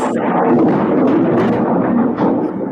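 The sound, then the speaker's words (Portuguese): Thunder rolls in a loud, unbroken rumble that stays heavy and low for the whole moment, a dense roar with no pauses and no voices. “Assim, um trovão, viu? É trovão isso?”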